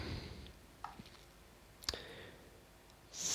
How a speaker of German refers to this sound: Cool, hier kann man ja nach Datum filtern. Wie geil ist das dann? Naja, egal, wir klicken trotzdem mal durch.